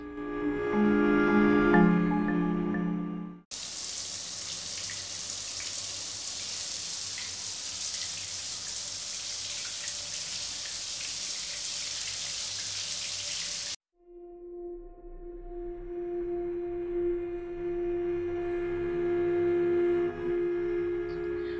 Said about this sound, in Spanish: Aquella era, aquella era una, una tarde lluviosa.